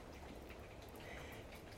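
Steady, soft rain patters against a window, a dense, even texture of tiny taps with no pauses and no voices.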